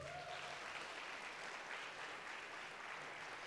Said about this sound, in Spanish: Dale un fuerte aplauso a Dios si lo crees.